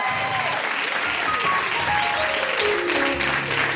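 Steady, dense applause from a crowd of many hands for two performers at a live show, loud and continuous for several seconds, with faint cheering and a few raised voices mixed in.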